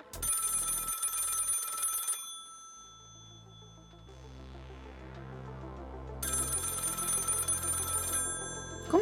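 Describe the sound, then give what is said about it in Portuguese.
A telephone rings in two bursts of bright, bell-like trilling, with a quieter tonal stretch in between, fairly loud, with no voices present. “que é isso aqui? Funciona igual o telefone?”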